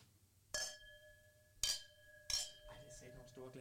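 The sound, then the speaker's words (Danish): Glasses of white wine clink together three times in a toast, each bright tap ringing on with a sustained tone. Quiet voices and chatter start up underneath toward the end. “Så skal vi ikke lige skåle?”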